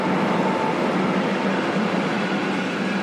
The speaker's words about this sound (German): Man merkt, ich wohne in der Iselstraße. es gibt ja die berühmte Iselstraßenpause. Ja, genau, genau. Ja? Ja. Hausnummer sage ich jetzt nicht. Äh, aber äh, da macht man ja drei Sekunden Pause Bloß dieser Güterzug, ist, ja.